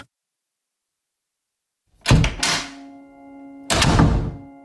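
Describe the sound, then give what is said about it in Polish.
After two seconds of silence, the handle of the front entrance door of a gloomy building is pressed by a trembling hand with a clunk, and the door swings open with a solid thunk, followed by a faint lingering ring and another heavy knock near the end. “drżącą ręką nacisnął klamkę drzwi wejściowych do ponurego budynku.”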